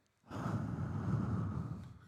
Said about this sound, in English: I felt like I was breathing into the microphone there for a second. Just a moment.